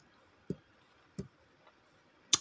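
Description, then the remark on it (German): Three sharp computer mouse clicks at irregular intervals, made while playing a video game, with a fainter tick between the second and third, over a quiet background with no talking. “Und ich weiß, es nervt, wenn ich die ganze Zeit mit der Maus so klicke.”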